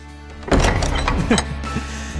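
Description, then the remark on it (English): An entrance door slams shut with a loud bang, followed by a brief rattle and a second softer knock as it settles, over a steady low background rumble. “But you know when you go out, it's just a big bang, big bang.”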